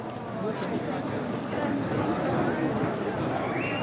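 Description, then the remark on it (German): Heavy rain pours down in a steady, dense hiss and patter on the market square in Bruneck, continuous for the whole stretch, with no clear pauses or letting up. “Ähm, es schüttet wie aus Eimern”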